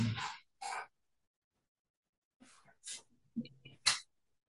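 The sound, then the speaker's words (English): The neighbor's dogs barking in the yard, a handful of harsh, sharp barks in two irregular bursts separated by a short lull, fairly faint, with no one talking. “Dude, I think my neighbor's dogs are in my yard.”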